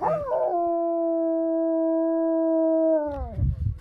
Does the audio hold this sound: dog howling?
yes